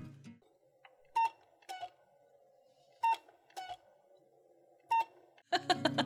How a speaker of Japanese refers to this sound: でこのポッポはですねポッポって呼んでるんだけど、このハット時計は、あの明るくないところに置いとくと泣かないんですよおあの光が当たってる時は泣くんだけど、うん、その暗いところにいたらね言わないのね